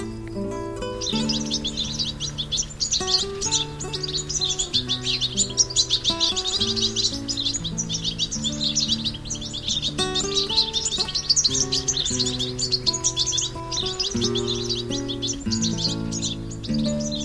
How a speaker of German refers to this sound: Das war der Stieglitz.